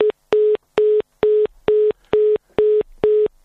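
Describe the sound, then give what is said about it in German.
A telephone busy tone from a line fault during a radio broadcast pulses in a steady rhythm, eight short beeps with even gaps, loud and clear with no one talking. “Wir haben ein kleines Problem mit der Leitung.”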